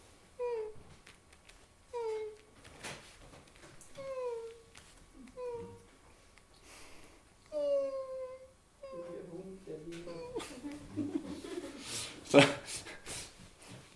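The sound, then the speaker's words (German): A voice mimics soft, quiet weeping: a series of short, whimpering sobs about a second apart, followed by a few seconds of breathier, shakier crying noises. “Und also das Gespenst ist vor meiner Tür sitzen geblieben und hat geweint. Nicht laut. Nur gerade so, dass ich es habe hören können.”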